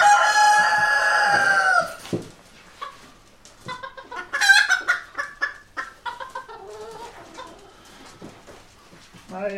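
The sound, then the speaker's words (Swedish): A rooster crows loudly for about two seconds at a poultry show, followed by a run of scattered clucks and short calls from other chickens, with faint murmuring in the background. “Här är ju svårare på tupparna att se schackformen men om ni tittar på den så ser ni att den är trekantig och inte rund.”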